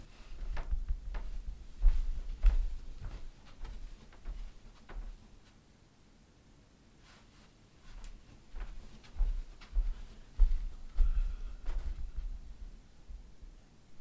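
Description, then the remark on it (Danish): The handle of an exit door is pressed down and released during dog training, giving a few sharp metallic clicks and clunks amid soft shuffling and low bumps, with a quiet pause midway before more clicks follow. “Dæk, mens du går til udangst til udgangsdøren, trykker håndtaget ned og går tilbage igen.”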